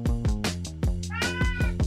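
cat meowing

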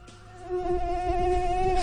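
mosquito buzzing

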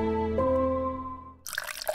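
water dripping

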